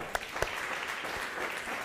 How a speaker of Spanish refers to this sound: Aplausos bien fuertes para el Eterno.